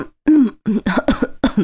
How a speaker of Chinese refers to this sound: 正在喝咖啡，直接一口将嘴里的咖啡全喷了出来，呛得连连咳嗽，赶紧放下咖啡，掏出纸巾擦衣服裤子。